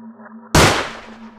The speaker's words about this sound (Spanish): Y mi tío soltó un disparo.